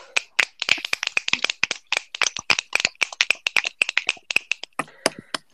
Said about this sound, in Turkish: Alkışlar!